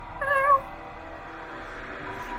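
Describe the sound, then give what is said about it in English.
A cat, Gutweed, gives one short, clear meow near the start, then only a soft, steady background hiss remains. No one speaks. “And you see uh, Gutweed come pattering out from the kitchen, licking their chops as they weave into your legs.”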